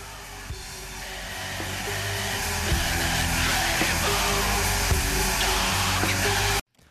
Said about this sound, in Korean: 아 들어줄 수가 없습니다. 자 블랙메탈은 저희 방송에도 소화하기 좀 힘든 장르인 것 같아요.